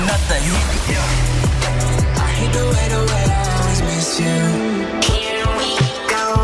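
A loud new pop song plays on Fine Radio with a heavy, pulsing bass line and layered synths; the deep low end drops out partway through, leaving brighter hits and chords. No one talks over it.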